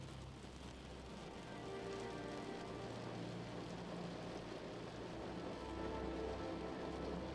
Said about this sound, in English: Laying present, only appreciating every soft touch of the warm sheets, the sound of the rain, and how peaceful you are inside.